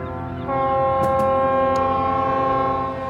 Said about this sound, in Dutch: Dat containerschip zou omringd zijn door andere schepen, die op het moment dat de stilte over de haven neer zou dalen, allemaal zouden eh, toeteren. Of ik weet niet hoe je dat noemt met een scheepshoorn, maar laten we zeggen toeteren.